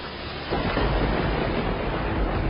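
A violent storm at sea: a powerful wind and crashing waves threatening to break up a ship fill the air, swelling louder after a brief moment and staying heavy and continuous, with deep rumbling underneath and no voices.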